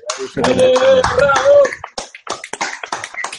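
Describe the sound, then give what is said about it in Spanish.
A loud sustained vocal whoop rises over a burst of noise, then gives way to scattered, uneven applause from a small group for the guests, the claps sharp and irregular. “Yo creo que eh, los invitados se merecen un aplauso.”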